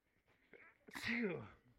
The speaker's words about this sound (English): I'm about to sneeze.